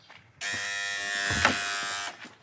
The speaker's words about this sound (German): So, da sind wir. Ich klingel mal